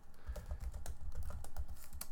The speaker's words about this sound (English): i'm typing here sorry